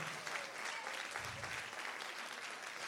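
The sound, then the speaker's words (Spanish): A crowd applauds steadily for Jesus, a dense, continuous wash of many hands clapping at even loudness for about three seconds, with no voices standing out. “Vamos, un aplauso como alguien que lo cree.”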